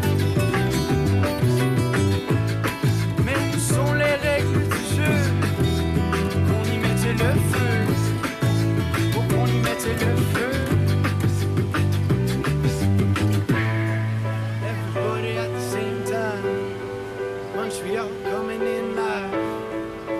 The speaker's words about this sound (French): C'est une captation pré-COVID, vous l'aurez sans doute deviné, avec piano de rue